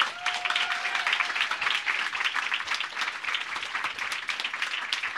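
An audience claps together in rhythm, a dense, steady wash of many hands sustained at an even loudness for about five seconds, with a brief whistle-like tone near the start and no voices.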